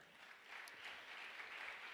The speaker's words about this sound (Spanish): El otro aplauso fuerte.